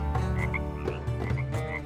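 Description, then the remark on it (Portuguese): A dense chorus of frogs croaking continuously over the land of Egypt, many overlapping calls forming a loud, steady din with no voices. “O rei do Egito disse aos dois irmãos: Peçam ao Senhor que tire as rãs, e eu deixarei o povo ir oferecer sacrifícios ao Senhor.”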